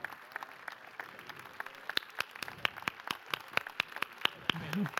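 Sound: audience applause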